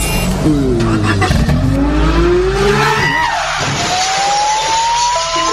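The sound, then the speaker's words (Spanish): A car engine revs loudly, its pitch sweeping upward through several gear changes as the vehicle accelerates away, with a brief tire squeal and steady road noise underneath. “Me tomaste y me montó al carro.”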